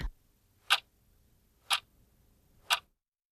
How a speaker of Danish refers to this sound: Tik, tak, tik, tak.